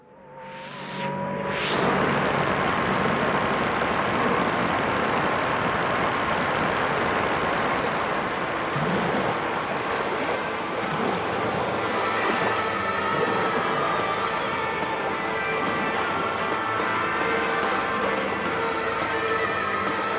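A loud, dense wash of white noise and crashing ocean surf swells in quickly and holds steady throughout, with faint sustained tones drifting underneath.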